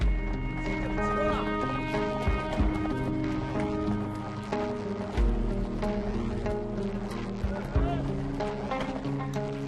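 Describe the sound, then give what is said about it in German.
Horses' hooves plod in a steady clip-clop rhythm as they turn a large winch to haul an ice-fishing net out through a hole in a frozen lake in China, with men pulling on ropes, partly buried beneath a loud, continuous musical bed of sustained tones. “Doch dann müssen sich die Pferde an der großen Kurbel und die Männer an den Seilen immer kräftiger ins Zeug legen.”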